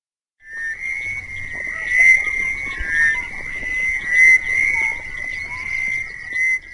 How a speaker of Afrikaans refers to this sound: 'n Koor paddas spreek los naby 'n rivier wat deur Ubeni vloei.